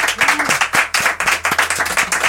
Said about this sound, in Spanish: Creo que le tenemos que dar un aplauso, ¿no, chicos?